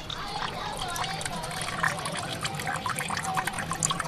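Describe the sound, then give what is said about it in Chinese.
Water trickles steadily through the bronze water clock, an ancient Chinese timekeeping device, at a street corner in Shuangmendi, a continuous bright babbling with small splashy flickers, holding an even level for the whole few seconds. “店铺间交织着咚咚的音乐声和叫卖声，淹没了街角铜壶滴漏的潺潺。”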